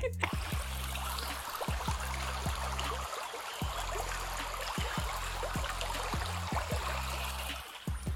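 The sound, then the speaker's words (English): Water from a fountain trickles down into a small stream and falls into the soil around plants, splashing steadily in a continuous bubbling flow without pause, with a low droning hum running underneath. “it was a fountain that had the water trickle down and then it went to like this little small river and then it went to the plants”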